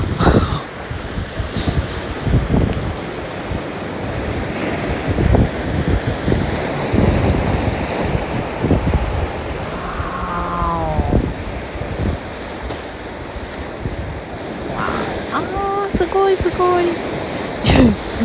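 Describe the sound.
Ocean waves wash steadily onto the shore at Napili, Maui, in a continuous rushing surge, with wind buffeting the microphone; brief voice-like tones and people talking appear faintly in the background.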